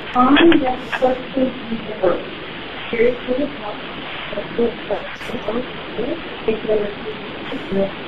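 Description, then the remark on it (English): A muffled, phone-quality recording of a pocket-dialed call from a courtroom, with indistinct voices speaking under a steady hiss. “We're getting butt calls from courtroom.”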